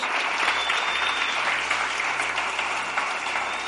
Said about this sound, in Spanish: Dale un aplauso más fuerte a Dios y es para Él todo lo que estamos